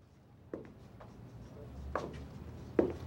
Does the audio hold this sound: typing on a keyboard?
yes